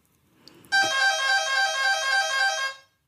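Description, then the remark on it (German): A kitchen egg timer goes off with a loud, continuous buzzing ring that lasts about two seconds before cutting out, signaling the end of a timed conversation. No voices are heard over it. “die Eieruhr eine Minute haben wir noch.”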